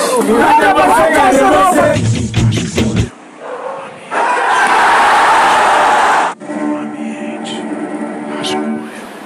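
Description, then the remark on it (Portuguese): A busy hubbub of many overlapping voices of people chattering at once, loudest at the start, then giving way to steady background noise and a murmuring crowd. “Cheio de barulho de gente.”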